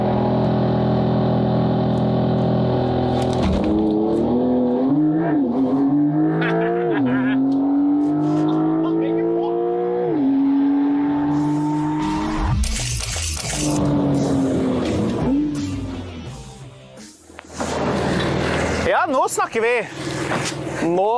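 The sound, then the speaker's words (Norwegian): A high-powered car with 480 horsepower, 0 to 100 in 3.3 seconds, accelerates hard, its loud engine note climbing in pitch, dropping at each gear change, then climbing again several times before giving way to rougher, noisier roaring. “480 hestekrefter, 0 til 100 på 3,3 sekunder. Jeg kommer til å knuse han.”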